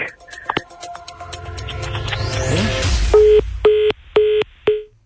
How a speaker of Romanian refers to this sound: S-a speriat și a închis, a fugit. Sună, dar nu cred că mai răspunde.